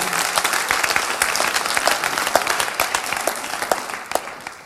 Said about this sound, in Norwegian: Disse gjør en fantastisk innsats. og Jeg har lyst til at vi skal gi dem også en riktig god applaus.